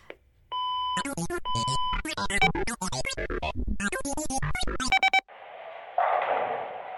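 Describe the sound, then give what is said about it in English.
Telephone tones as a call is placed to a lodge: a steady dial tone, then a quick run of electronic dialing beeps with brief ringing-like tones, ending in a burst of line hiss, clear with no talking. “After two weeks, it was time to call the lodge. 7477358.”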